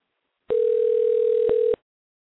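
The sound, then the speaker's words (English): A single steady electronic phone ring tone plays over the line for just over a second, clear and fairly loud, with small clicks at its start and end. No one answers or speaks. “let's try this again. No, only if uh, Charles Ramsey will pick up the phone”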